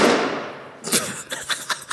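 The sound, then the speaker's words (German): A balloon bursts with a sharp, noisy crack that trails off over most of a second, followed by a few faint clicks and light taps. “Der Luftballon ist geplatzt.”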